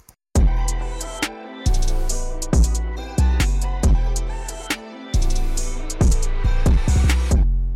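A hip-hop beat with booming bass and punchy kicks, with bright white-noise whooshes sweeping in at intervals over the loop. No one speaks.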